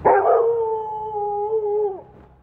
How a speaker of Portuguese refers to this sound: Nada. A não ser a raiva cada vez maior dos cachorros.